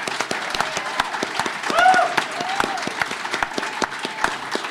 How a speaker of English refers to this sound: so he deserves a big round of applause.